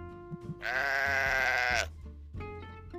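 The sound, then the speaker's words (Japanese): A single loud sheep bleat sound effect, played after a speaker fumbles their words, rings out for just over a second, a wavering, nasal cry standing alone with no talking around it. “とちったので羊羊が鳴きました。”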